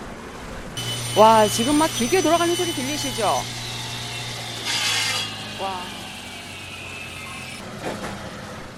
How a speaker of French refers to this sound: Des sons de coups de marteaux et de soudures participent à la vitalité de cette rue consacrée à la découpe, à la sculpture et aux travaux de précision sur métal où environ 360 magasins possédant des machines de pointe sont regroupés.